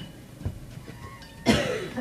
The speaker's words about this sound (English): I need to, I need to have a really good cough.